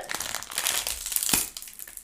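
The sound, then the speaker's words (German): Crinkling of a fortune cookie's plastic wrapper being torn open, with a sharp crunch near the middle as the cookie breaks inside the package, followed by softer rustling. No voices. “Uh, jetzt kommt noch der Glückskeks. Genau, den darfst jetzt du öffnen.”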